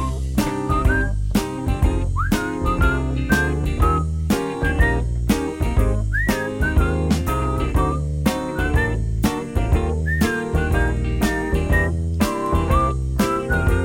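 A whistled melody with short sliding notes rides over a steady, upbeat pop beat with bass and drums. It stays clear and prominent throughout, and no one speaks.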